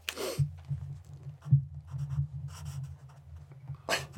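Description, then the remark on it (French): A felt-tip marker squeaks and scratches across paper in short strokes with brief pauses, over a low steady hum; no one speaks. “on entend très très bien le bruit du feutre.”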